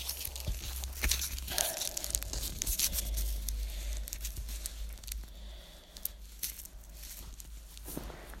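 Handling of a velcro strip being checked against slits for length: scratchy ripping and crackling bursts come and go over about eight seconds, with soft rustles between them and a steady low hum underneath.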